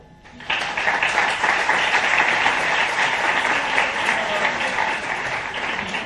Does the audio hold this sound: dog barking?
no